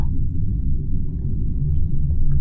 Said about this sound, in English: The train has begun to move again. It's picking up speed.